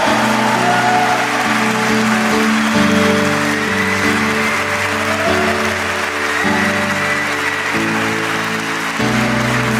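A crowd applauds steadily and loudly for about ten seconds, giving applause to the Lord Jesus during a church sermon, the dense clapping running over a sustained organ-like musical backing with shifting chords, no one speaking.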